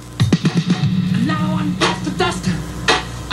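A short snippet of a rock song played forward from a record: a few punchy, rhythmic bass-and-drum hits open it, followed by a sung vocal phrase over the band, fairly loud.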